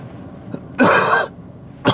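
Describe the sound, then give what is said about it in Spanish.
A single loud, harsh cough bursts out for about half a second, followed by a brief throat-clearing sound; no talking, just a dry hack from a person who is recovering from a cough. “Voy mucho mejor de la tos, pero todavía me queda un poco.”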